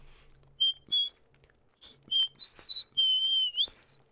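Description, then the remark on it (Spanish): Someone whistles a TV series theme tune, a series of clear, sustained pitched notes with brief gaps between them, rising and sliding in places, with no talking alongside. “Era, era silbada la canción.”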